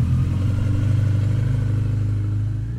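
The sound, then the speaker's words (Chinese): A motorcycle carrying a rider and a passenger on a clear spring morning chugs along at a low, steady idle-like pace, its rapid rhythmic putter loud and continuous, rising slightly as it rolls forward slowly. No one speaks. “三月的春天里，一个晴朗的早晨，东东侦探骑着摩托车，载着助手小西，摩托车缓慢地前进着。”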